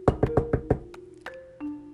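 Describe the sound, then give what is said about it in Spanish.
Five quick, evenly spaced knocks as Liebre knocks on Cochinito's door, fairly loud, followed by a softer sixth tap and then a couple of sustained musical tones ringing out. “Liebre tocó a la puerta de Cochinito.”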